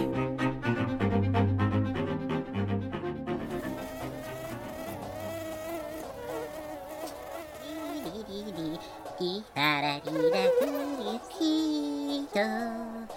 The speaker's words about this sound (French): C'est un moustique en colère, mais pas toujours.